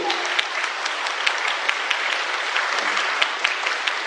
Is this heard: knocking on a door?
no